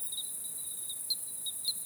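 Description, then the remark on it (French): The calling song of testaceous crickets at 23:05, with an air temperature of 22-23 °C: a steady, high-pitched continuous trill with a few brief louder swells, fairly soft and unbroken throughout, with no voices. “Et là, on entend le chant d'appel des grillons testacés.”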